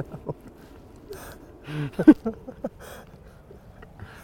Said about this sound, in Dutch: Dit hoorde je. Dit hoorde je. Grote gele kwikstaart. Dit... Die ik net al voorspelde.